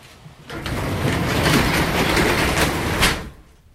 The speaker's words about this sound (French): Fait que on, ferme la porte du garage. ça on devrait l'entendre. Ouais, on devrait l'entendre. On ferme la porte du garage.